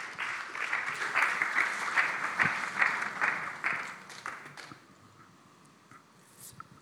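Audience applause fills the room for about four seconds, a dense wash of many hands clapping, then quickly fades to a few scattered claps and quiet room noise.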